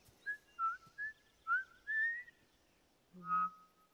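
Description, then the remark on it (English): Someone whistles a video game's theme tune, a string of clear sliding notes in a steady phrase, moderately loud, ending with a brief lower tone. “she actually starts whistling, she whistles the Uncharted theme”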